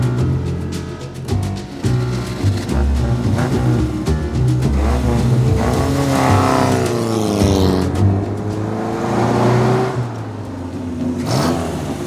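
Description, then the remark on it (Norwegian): A Morgan sports car engine runs, its pitch rising and falling as it revs and shifts through maneuvers, then easing down as the car is parked between a white Sunbeam and a bottle-green Ford outside an old manor house. “Jeg kilte Morgan inn mellom en hvit Sunbeam og en flaskegrønn Ford, før jeg skritta opp marmortrappa og gikk inn.”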